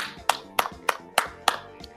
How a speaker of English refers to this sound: I, I can't do nothing but clap for you, bud, because we knew he was trending at the end of the season.